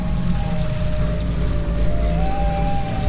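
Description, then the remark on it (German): A small brook of dark water winding between the graves of a cemetery at midnight flows steadily, its continuous gurgling wash filling the whole clip at an even, moderate level, with a faint thin tone drifting faintly in the background. “Zwischen den Gräbern schlängelte sich ein kleiner Bach mit dunklem, stinkendem Wasser.”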